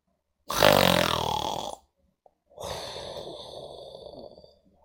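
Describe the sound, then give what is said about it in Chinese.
A voice imitates the loud snoring of the sleeping Gruffalo father in a story: two long drawn-out snores, the first a harsh, throaty rumble and the second a breathier, noisier rasp after a short pause, with no other sounds. “一个风雪交加的晚上，咕噜牛爸爸睡着了，呼噜打得震天响。”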